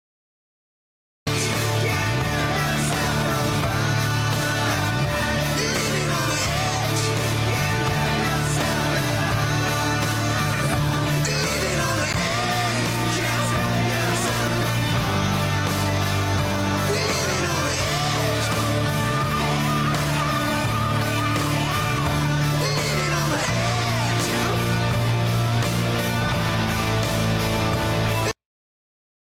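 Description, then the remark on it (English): A loud, dense rock song plays steadily throughout, driving bass and full-band instruments with high, screeching backing vocals repeating short shouts behind the main mix. “is he singing another track behind this going like yeah yeah yeah yeah he did have that in there yeah, just a little, little little screeching”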